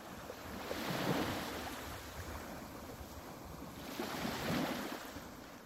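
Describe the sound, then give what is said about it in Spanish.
Ocean waves roll in and break on the shore, two broad surges of rushing water swelling and fading over a steady wash of surf, with some wind rumble and no voices. “Bueno, la verdad es que siendo de Gijón, eh, el sonido del mar ha acompañado no mi adolescencia, sino toda mi vida.”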